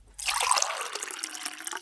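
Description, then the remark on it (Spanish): Water is poured into a glass in a bright, splashy gurgle that starts abruptly after a brief pause and continues without a break to the end, with no talking. “¿Un poquito más de agua?”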